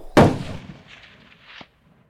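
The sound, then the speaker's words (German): A single loud gunshot cracks out sharply as a person runs across a field, followed by a long rumbling echo that fades over about a second, with a faint second thud near the end. “Und dann hörte ich einen Schuss.”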